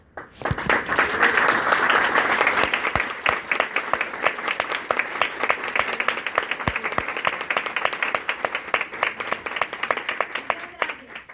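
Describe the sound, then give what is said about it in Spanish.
An audience breaks into loud, sustained applause, many hands clapping in a dense, crackling wash that swells early on and then holds steady with sharp individual claps standing out. “Y la verdad, quiero que la recibamos con un fuerte aplauso.”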